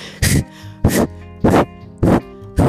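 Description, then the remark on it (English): A voice imitates the heavy breathing of a runner who breathes loudly to keep pace: four loud, forceful huffs and puffs in a steady rhythm, with brief pauses between them. “the trouble was that his style of running was uh, heavy breathing so you see, uh, there are some runners that you hear them.”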